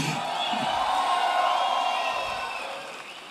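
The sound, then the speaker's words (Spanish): An audience erupts in loud, sustained shouting and cheering, a dense wash of many voices that holds steady for a few seconds before easing off slightly at the end. “Uh, ¡Qué buen momento para pegar un grito!”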